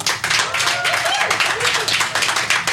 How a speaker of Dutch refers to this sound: mag ik een applaus voor Tabe Ido?